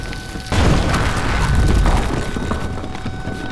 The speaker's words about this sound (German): Die dritte Explosion riss die letzten Mauern ein. Gewaltige Gesteinsbrocken wurden aus dem Erdreich in die Luft geschleudert.